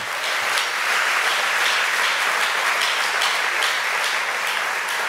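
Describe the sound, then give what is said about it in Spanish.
A large crowd claps steadily and loudly, a dense wash of many hands applauding together for several seconds with no one speaking over it, applause given in praise of the Lord. “Déselo fuerte, más fuerte, más fuerte, alabe al Señor.”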